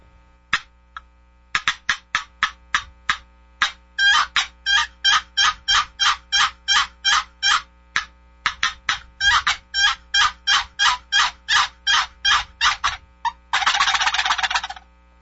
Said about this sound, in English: the box call that really is my bread and butter, and I think more turkeys have probably been killed